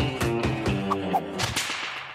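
Six or so sharp whip cracks snap in quick, fairly regular succession, loud, over a steady musical backing that carries on after the cracks stop.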